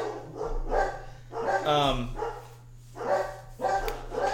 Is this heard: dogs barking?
yes